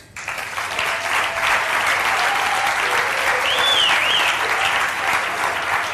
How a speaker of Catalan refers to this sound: Els pares de la criatura, també un fort aplaudiment per ells, són l'humorista gràfic Napi i el periodista i dramaturg Marquès.